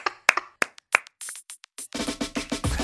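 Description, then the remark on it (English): A few scattered, sharp claps start things off, then build into a dense, steady round of applause from many hands that carries on to the end. “Round of applause.”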